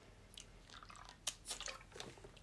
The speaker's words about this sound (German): Deshalb trinke ich gerade normales Wasser.